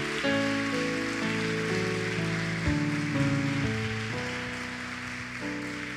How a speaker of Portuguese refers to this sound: Dá uma salva de palmas para Jesus, o nosso Senhor.